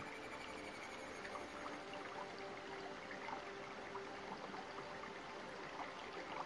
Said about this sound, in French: Écoutez le doux bruit de l'eau.